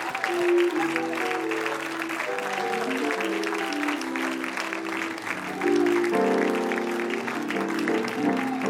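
An audience claps hands for the Lord in a steady, dense burst of applause lasting several seconds, with sustained musical tones underneath that swell louder partway through.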